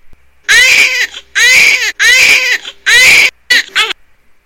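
A baby cries in a series of loud, high-pitched wails: four sustained bursts followed by two shorter, choppier ones, with brief gasping pauses between them and no talking.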